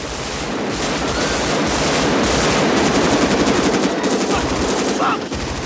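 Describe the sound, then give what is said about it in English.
Dense, rapid machine-gun fire rattles continuously with overlapping bursts and gunshots, loud, from a film gunfight during a big heist in a city, recorded live from actual guns firing, with a faint voice buried in the din. “Oh yeah, I mean the audio at the the big heist in the city, the, the gunfight.”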